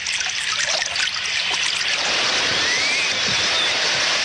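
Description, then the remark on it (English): A group of people from Venezuela wading across a river near Del Rio, Texas, a small boy carried on shoulders, with steady rushing water and scattered splashes of movement, continuous for the whole stretch, no voices. “This group from Venezuela crossing the river near Del Rio, Texas, a small boy carried across on shoulders, his feet skimming the water.”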